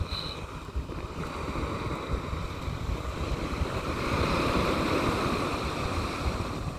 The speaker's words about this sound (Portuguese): E imaginamos sentados na areia e as pequenas ondas do mar a nos melhor os pés.